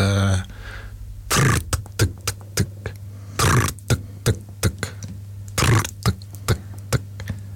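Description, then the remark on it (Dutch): A voice imitates a pain-relieving pulsing wave with a series of short mouth clicks, broken by three breathy whooshes, over a low steady hum. The pulses start quicker and gradually spread out. “Hoe klinkt zo'n pijnstillende golf ongeveer? Kun je dat voordoen?”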